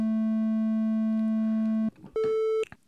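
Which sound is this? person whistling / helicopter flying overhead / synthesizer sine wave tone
synthesizer sine wave tone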